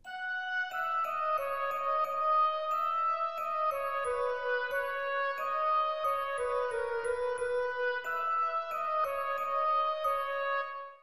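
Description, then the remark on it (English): A glockenspiel and oboe play a steady, flowing melody together, with a soft marimba underneath. The notes ring out clearly at an even volume for the whole passage, with no voices. “And if I put the marimba back in, it now sounds like this.”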